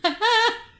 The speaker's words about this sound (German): Das war mein Stuhl. Ich habe meinen Stuhl nach hinten gerückt.